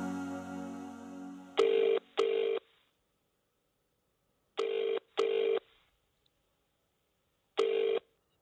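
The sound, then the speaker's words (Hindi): A phone ringback tone pulses in paired bursts as a phone call is made, two short rings, a pause, two more, then a single ring, clear, following a brief low hum at the start. “पर उससे इंतजार और नहीं किया गया उसने अपना फोन उठाया और अभी को कॉल किया”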